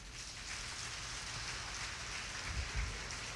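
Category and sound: crowd, audience applause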